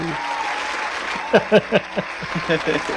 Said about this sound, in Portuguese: Vamos bater palma, minha gente, porque afinal de contas, somos os heróis da resistência. Então, bate as palmas aí. Aê!